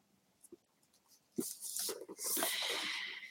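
book being opened

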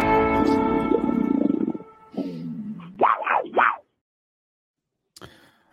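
big cat roaring

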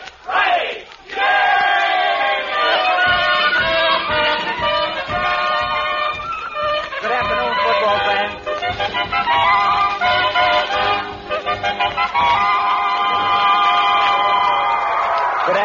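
football crowd cheering

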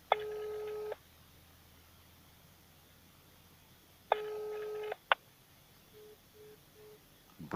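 telephone busy tone

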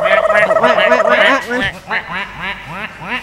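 duck quacking

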